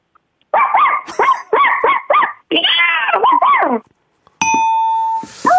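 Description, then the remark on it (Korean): A person on Park Myung-soo's Radio Show imitates a puppy barking: a quick run of about six high yips, then a longer whiny bark with a few short yaps, loud, followed by a steady electronic tone. “강아지 있어요, 그, 강아지. 그래, 강아지 해봐요.”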